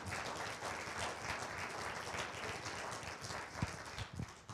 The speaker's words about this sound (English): Give my dad a round of applause for sharing those things.